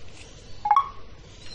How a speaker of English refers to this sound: So it was pressing 8 activated the home button and of course pressing 8 twice takes you to the app switcher. So I'll do that now, pressing 8 twice.